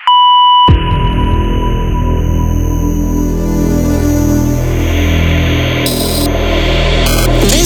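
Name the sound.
voicemail answering machine beep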